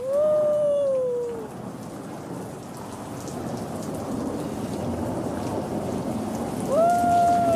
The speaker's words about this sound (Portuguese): Lá em Apocalipse está dizendo: Então eu ouvi o som de uma grande multidão, como um estrondo de muitas águas, fortes trovões.